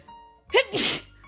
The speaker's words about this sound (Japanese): 失礼しました。ちょっとくしゃみしちゃった。